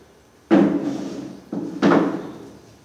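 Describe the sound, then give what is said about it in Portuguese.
A chair is set down in place with a solid wooden thud, followed a second later by two more knocks in quick succession as it settles. No one speaks. “Vamos Esse colocar a cadeira.”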